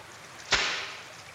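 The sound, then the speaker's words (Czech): A man at a fishing spot slaps the water with his hand, scaring the fish: a single sharp slap followed by a brief fizzing spray that quickly fades into quiet background. “plácá do vody a plaší nám tady ryby prostě.”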